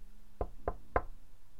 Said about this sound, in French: Enfermée depuis longtemps dans la salle de bain, sa mère frappa à la porte.